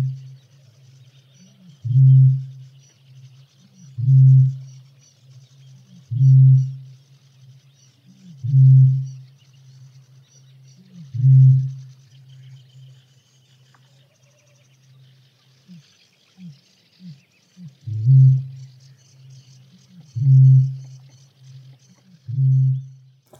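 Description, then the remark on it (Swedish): A peculiar bird call: deep, booming hoots repeated about eight times at a steady two-second rhythm, with a brief pause partway through. It is heard alone over faint background hiss. “Den har ett väldigt säreget ljud som har färgat just vår trosföreställning kring just den här typen av fågel.”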